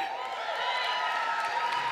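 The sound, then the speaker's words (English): Steady applause from a large audience as a speaker praises church audiences, a dense wash of overlapping claps that continues evenly for the whole moment, with a faint murmur of crowd noise underneath. “I said, don't clap.”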